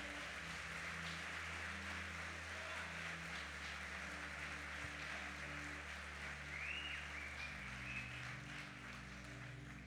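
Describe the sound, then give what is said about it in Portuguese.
A church audience applauds in the name of the Lord in a steady, continuous wash of clapping that holds at an even level throughout, with sustained low keyboard or organ notes playing underneath. “Aplauda é o nome do Senhor.”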